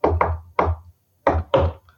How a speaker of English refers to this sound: because we like the combat to have like a rhythmic quality to it on the buttons. Mm-hmm. And when we would talk to the animators, you would just bang out on the desk the rhythm that you wanted.